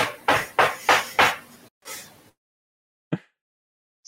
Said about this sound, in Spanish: Toca más fuerte.